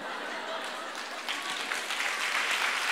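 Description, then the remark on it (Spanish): An audience claps steadily, a dense wash of many hands that grows slightly louder toward the end, with no talking over it. “No sé si era, el aplauso es para que suceda, ¿no?”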